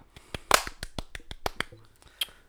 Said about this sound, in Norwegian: Kort applaus er jo bare én klapp. Å ja, det ble den litt lenger igjen.